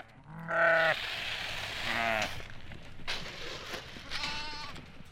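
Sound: flock of sheep bleating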